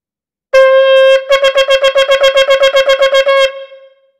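A shofar sounds a teruah, the alarm call: a brief sustained blare breaks into a rapid string of about fifteen short staccato blasts, loud, then trails off, with no voices.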